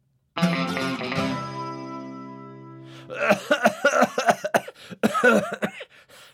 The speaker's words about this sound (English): that cough is still sounding bad. Have you tried the cough medicine I use?